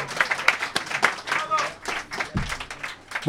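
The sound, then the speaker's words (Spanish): A short burst of applause from a small group for a pastor, scattered hand claps rising and fading over a few seconds, with voices talking and cheering over it. “un aplauso”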